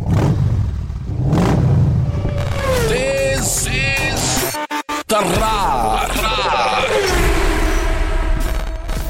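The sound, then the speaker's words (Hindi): A motorbike engine revs loudly, its pitch climbing and falling through several throttle bursts, with a brief cut-out midway before roaring back. “तो आप समझ ही गए होंगे कि ये कहाँ से आई है बाइक से ऑब्वियसली बट बाइक में ऐसा क्या है जो नहीं होगा तो आवाज नहीं आएगी क्या एग्जॉस्ट हाँ वो तो है पर एक चीज और है जिसके बिना एग्जॉस्ट भी किसी काम का नहीं रहेगा”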